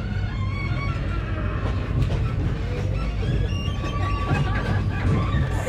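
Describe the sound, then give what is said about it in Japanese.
Inside a moving temporary (extra) express passenger train: a steady rumble of wheels and carriage with faint high whines and occasional rattles, plus a soft murmur of voices in the background. “お待たせいたしましたご乗車いただきましてありがとうございます臨時急行列車星沢列車の奥井駅です”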